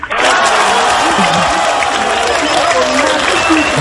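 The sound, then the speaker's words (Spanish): Players of the Barbastro football club erupt in loud, sustained cheering and clapping in their locker room on being drawn against FC Barcelona, men's shouts overlapping continuously from start to finish. “Y este es el vestuario del Barbastro.”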